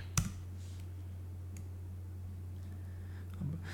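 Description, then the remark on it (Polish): A few sparse, light clicks of typing on a computer keyboard while searching online for the Apple Pay fee, one sharper keystroke near the start and fainter taps after, over a steady low electrical hum with no talking. “zaraz wygooglam, chyba fee Apple'a to jest bodajże 0,15%”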